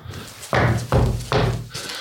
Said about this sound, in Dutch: En als je daar stampt, dan hoor je dat daar een holle ruimte onder is.